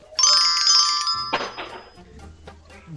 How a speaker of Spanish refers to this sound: El celular una vez más.